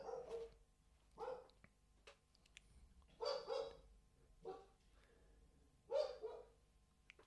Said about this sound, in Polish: Poznajcie Kajko. Kajko jest psem, którego adoptowaliśmy ze schroniska jakieś 2,5 tygodnia temu i właśnie y, postanowił się rozszczekać.